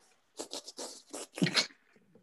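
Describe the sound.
A run of wet mouth slurping noises, about five quick sucking bursts in a row, the last one longest and loudest, with no talking.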